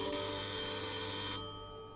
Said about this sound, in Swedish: Klockan blir 20.30 och det ringer på dörren